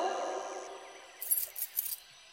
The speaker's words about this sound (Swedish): Så hör jag nycklar. Så jag bara, ja, det måste ju vara han mannen då med har stor nyckelknippa.